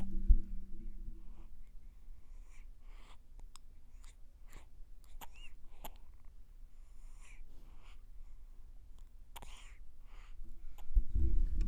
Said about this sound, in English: just such an adorable sound to listen to her eat, breathe, smile, fart, burp, spit up, all the things.